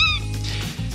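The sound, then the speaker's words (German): A single short, shrill tawny owl call rings out loud at the very start, then fades into a steady low rumble of background noise for the rest of the moment. “Genau, das ist der Ruf vom Waldkauz.”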